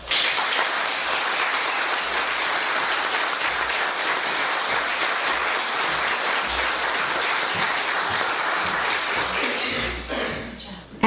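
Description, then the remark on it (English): An audience at a worship service bursts into steady, full applause, many hands clapping densely and evenly for about ten seconds before it thins out and fades at the end. “And a round of applause.”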